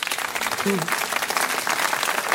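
Steady, dense applause from an audience on Deutschlandfunk Kultur's "das blaue Sofa", greeting 2022 Heine Prize winner Juri Andruchowitsch, many hands clapping in a continuous wash with no clear rhythm, with a brief murmur of voices partway through.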